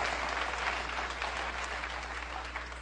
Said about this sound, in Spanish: Pero en cambio, los ídolos de verdad están aquí en esta sala. Así que un aplauso para ustedes y ahora sí vamos a el último pedacito.